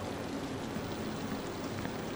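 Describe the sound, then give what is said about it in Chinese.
Heavy rain falling outdoors, a dense, even hiss of countless drops with a low rumbling undertone, constant in level throughout and with no voices. “刚出门就下雨啊？”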